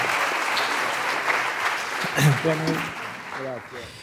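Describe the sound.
An audience applauds steadily with dense, crackling clapping throughout, while voices speak over it toward the end as the clapping continues.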